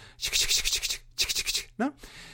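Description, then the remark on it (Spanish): A voice imitates the sound of a baby rattle, a children's toy, being shaken: two bursts of quick, rhythmic hissing shakes, fairly loud, followed by a short voiced sound. “Y este juguete, el sonajero, eh, pues eh, se llama sonajero porque suena, ¿vale? Porque suena, porque hace ruido, ¿no?”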